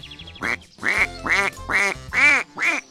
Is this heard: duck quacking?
yes